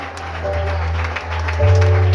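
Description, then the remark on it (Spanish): A large group claps loudly and steadily for God in a dense, continuous wash of applause, with a low sustained hum or organ-like tone underneath that swells near the end. “Vamos, denle un fuerte aplauso a Dios, hermano.”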